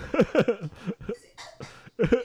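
Several rough coughs break out in quick succession, mixed with breathy, voiced bursts that sound almost like laughter, loud and uneven from start to finish.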